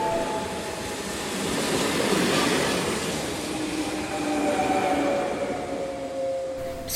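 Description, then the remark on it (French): A train rumbles steadily along the rails, a loud, dense roar with faint metallic squeals and tones drifting over it, no voices present throughout. “quand, quand le bruit du train il commence à faire le bruit, bah, ça me rappelle les mouvements de la musique.”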